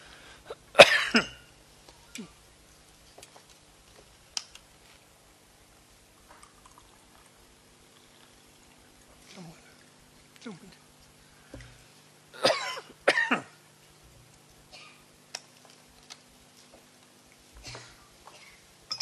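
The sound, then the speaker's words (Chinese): A person coughs several times with no talking: a sharp, harsh cough at the start, a strong double cough later, and a few quieter throaty coughs and throat-clearing sounds scattered in between. “不好意思，老子咳嗽。”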